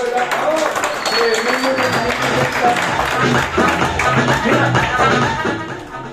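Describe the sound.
Sustained audience applause for a trainer after a training session lasts several seconds, a dense, steady patter of many hands clapping at once, with voices and cheering mixed in.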